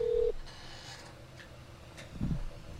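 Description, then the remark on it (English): A single short tone on an old studio telephone line beeps at the start, steady and fairly loud, then gives way to quiet line hiss and a brief low rumble near the end. No one speaks. “I think it was our phone actually. I don't know. Our, our line went down or something.”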